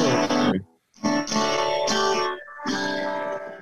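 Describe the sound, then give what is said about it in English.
A guitar strummed in several loud, ringing chords with a bright, effected tone, each chord sustaining before a brief pause and the next strum; no voices. “Well, yeah, I can I can strum it a little bit.”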